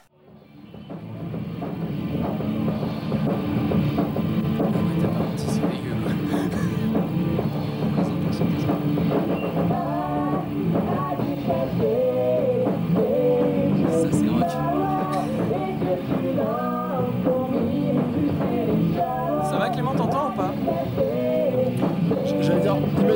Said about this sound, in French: Voici un extrait audio d'une captation sur VHS d'il y a 25 ans. Et c'est parti.